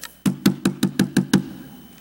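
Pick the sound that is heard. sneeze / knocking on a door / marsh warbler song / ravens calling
knocking on a door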